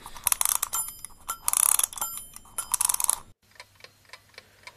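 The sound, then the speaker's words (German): Loud rasping clicks of a wind-up alarm clock being wound, with bright metallic ringing overtones, then a steady, quick, softer ticking continues on its own. No one speaks. “und ich ziehe diesen Wecker auf da ist er.”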